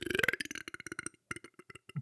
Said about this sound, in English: Sorry, you burp up some rocks.